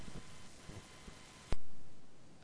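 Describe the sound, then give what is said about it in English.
A single sharp, loud click from a microphone switching on, followed by a slightly changed hum of background noise that slowly fades. No one speaks. “I heard his mic click on.”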